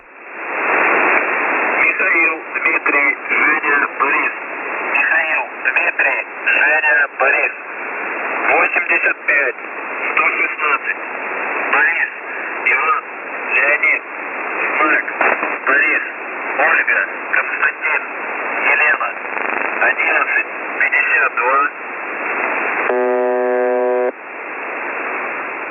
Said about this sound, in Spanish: Esta voz que interrumpió la señal conocida como The Buzzer unas horas antes de la Navidad de 1997 en Rusia y que de por sí ya alteraba los nervios de algunos ciudadanos.